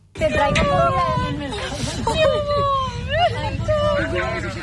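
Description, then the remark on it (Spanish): A woman sobs and wails with joy, her voice rising and breaking in wavering cries over a steady hiss of background bustle; she lives in a fire-damaged apartment building in Campanar, Valencia, and is reunited with her cat, rescued by firefighters. “es el llanto de alegría, de una vecina del edificio siniestrado al reencontrarse con su mascota, con un gato.”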